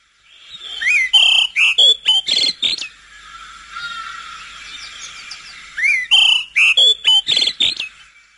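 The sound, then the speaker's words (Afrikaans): An olive thrush sings two clear, fluty phrases of varied whistled notes, separated by a few seconds of faint background chirring. The bird sounds loud, with no talking. “Nou die gewone luister hier by ons is die olyfluister, een van die oggend se mooiste sangers.”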